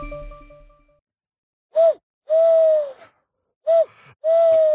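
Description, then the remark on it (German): A voice imitates an eagle-owl's hoot in two pairs of calls, each a short rising note followed by a longer sustained hoo, fairly loud, with brief silences between. “Ich mache nicht meinen Edgar Walatze, ich mache meinen, was sind das, ein Uhu oder sowas oder ein Vögelchen.”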